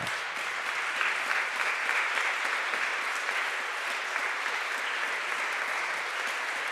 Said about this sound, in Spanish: ¿Por qué no damos unas fuertes palmas?